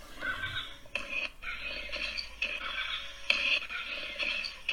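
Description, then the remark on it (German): An animated cartoon dinosaur stomping across the screen lets out shrill, whinnying screeches that run almost nonstop, loud, with brief breaks between cries and no voices. “Ähm, erstmal allein vom Design, da läuft eben ein Dino durchs Bild, der ist animiert. also, hier. Du siehst ihn. Also, ihr hört ihn auch.”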